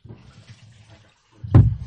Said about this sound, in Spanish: Mira, te voy a pedir que me des una manito para llenar un poquito de agua acá.